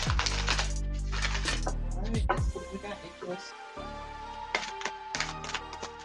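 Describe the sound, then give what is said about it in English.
A woman shuffles a deck of cards, with rapid crisp riffling clicks and flutters in bursts, over a low steady hum and faint voice-like sounds in the background. “She shuffles much better than me.”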